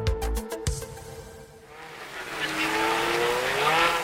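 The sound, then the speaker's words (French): Race cars at the start of the 48th 24 Hours of Le Mans idle with a steady engine drone and a few sharp clicks, then the whole field surges into a loud, swelling roar as engines accelerate, their pitch climbing together. “La voiture pilote va s'effacer sur sa droite, ce sera le signal.”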